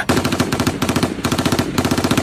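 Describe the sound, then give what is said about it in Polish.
A loud, sustained burst of automatic gunfire, another series fired from the other side into the heads of infected people: sharp, evenly spaced cracks in rapid succession, roughly ten per second, running for about two seconds with no voices. “Kolejna seria, tym razem z drugiej strony.”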